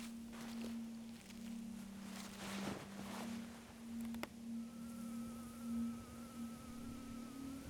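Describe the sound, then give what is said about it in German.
A trapped bee buzzes steadily, its drone wavering in pitch and loudness as it moves restlessly about, with no talking. “Oh, der Biene gefällt es hier drin ganz und gar nicht. Sie wird unruhig.”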